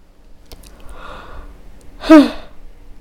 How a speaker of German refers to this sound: Ich gähne nicht, weil ich müde bin. Ich gähne, ja, ich glaube, ich gähne, weil ich die Wahrheit spreche